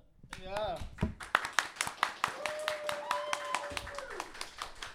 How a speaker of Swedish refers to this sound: Eh, tack, för, tack för applåderna. Eh, ska vi applådera för dem?